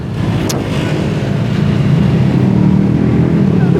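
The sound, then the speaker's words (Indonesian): A loud racing motorbike engine roars, a dense, throaty rumble that holds steady for several seconds as it passes. “tuh kan baru gue ngomongin udah lewat”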